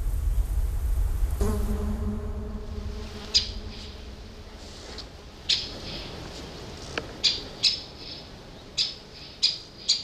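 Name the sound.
bird calling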